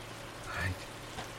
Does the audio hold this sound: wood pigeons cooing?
no